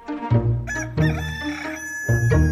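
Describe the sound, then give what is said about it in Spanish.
A rooster crows loudly, a long harmonic cock-a-doodle-doo with a second call starting right after, sounding alone without any talking. “Otra vez canta el gallo.”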